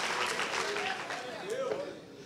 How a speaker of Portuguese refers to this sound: Se você está aplaudindo, aplauda o Senhor, você aplauda. Salmo 47, aplaudir o Senhor todos os povos, louvai a Deus com voz de triunfo.